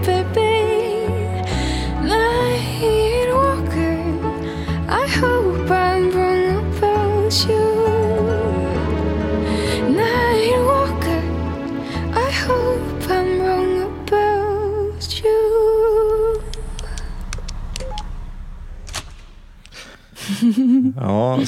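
A song plays at full volume: a melodic sung vocal over steady bass and layered instruments. The low end drops away near the end, leaving thinner accompaniment.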